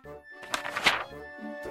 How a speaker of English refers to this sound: This is the sound of a page turning. When you hear it, you will know it is time to turn the page.